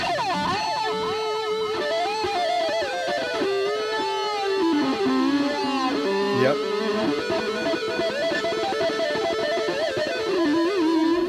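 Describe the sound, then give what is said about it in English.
A distorted electric guitar through a wah-wah pedal held partly on and not moved plays a sustained, bending lead at steady volume with a nasal, fixed-wah tone. No voices are heard. “Just keep it on just a little bit, not moving up and down, is also right. with distortion.”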